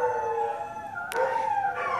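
Several dogs howl together in a sustained, wavering chorus, their long tones overlapping and shifting pitch, with a brief sharp yelp breaking in midway. No one speaks.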